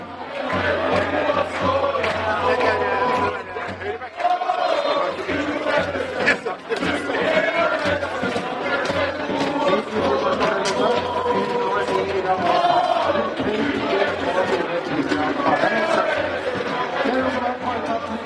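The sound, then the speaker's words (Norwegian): A large football crowd at Sarpsborg stadium sings a local songwriter's song together in a loud, continuous mass of voices, with chanting and cheering swelling throughout and a steady roar of the crowd underneath. “Og allerede nå så blir altså en av sangene hans sunget på stadion.”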